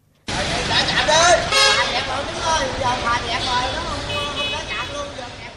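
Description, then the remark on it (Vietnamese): Many car horns honk over and over in a dense, overlapping chorus, with vehicle owners shouting and cheering amid steady traffic rumble, as the BOT T2 toll station in Thới Thuận ward, Thốt Nốt district, Cần Thơ city lets vehicles through after prolonged congestion. “Sự tranh luận nảy lửa, những phản ứng trái chiều, tiếng còi xe liên hồi tiếng hò reo của các chủ phương tiện khi xả trạm do ủng tắc kéo dài đã tạo nên khung cảnh hỗn loạn ở khu vực BOT T2.”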